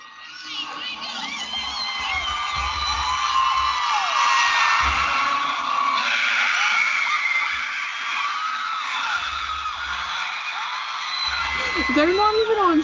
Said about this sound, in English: Oh my gosh, it was so loud. And you just have to listen to the screams.